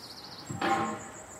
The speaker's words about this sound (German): Das Gepolter, das Gerumpel hier vorne, hier vorne ist nämlich auch ein, so eine kleine Werft. Werft. Hier machen die ja auch die, die Dalben und, und gerade im Winter wird ja viel gebaut hier an den Flüssen.